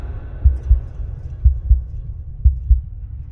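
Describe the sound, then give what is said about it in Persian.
A heartbeat pulsing in the temples as the heart rate rises thumps in low, muffled double beats, lub-dub pairs repeating about once a second over a dull steady hum, with no voices. “همینطور که ضربان قلبم میرفت بالا میتونستم صدای نبز روی شقیقه هامو بشنوم”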